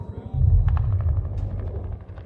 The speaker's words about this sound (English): Here I am, on the front line, it's mayhem. There's gunfire, shouting, chaos. The soldiers, a motley crew, fight for their lives, the lives of their comrades, and for their new nation.